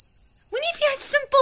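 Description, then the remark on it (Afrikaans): A cricket chirps with a steady, high, thin trill, followed by several louder, bouncy chirping calls, with no talking. “Hy hoor hoe die krieket chirp.”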